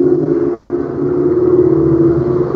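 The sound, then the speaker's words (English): A car on a nearby main road rumbles steadily and fairly loudly, a low engine drone with a brief dropout near the start, and no voices over it. “Is someone right near a car?”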